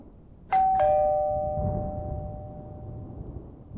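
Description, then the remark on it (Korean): A two-tone electronic intercom doorbell chime rings once as the character Moon-gwang presses the intercom while lightning strikes, a bright ding followed by a lower dong that lingers and slowly fades over a low background rumble. “그 순간 전동 번개가 치고 문광이 찾아와 인터폰을 누른 후”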